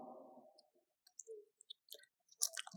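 Soft chewing on a 20-euro paper banknote: a muffled rustle gives way to scattered wet clicks and brief crackling crunches, ending in a louder papery crinkle. No one speaks.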